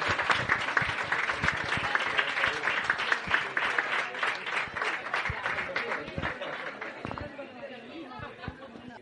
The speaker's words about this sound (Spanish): Aplauso. Gracias.